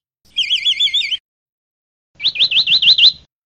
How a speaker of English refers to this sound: So first, here's the song of a vireo, which is apparently a kind of bird.